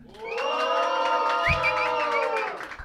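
An audience at a live competition cheers and shouts loudly and steadily for about three seconds, making noise for a contestant, with high-pitched whoops and yells layered over a dense wall of voices, plus a brief low thump midway.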